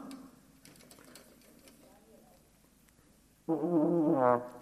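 Quiet rustling and faint clicks, then a sudden loud trombone note that wavers and wobbles unsteadily in pitch for about a second, sounding rough and poorly played.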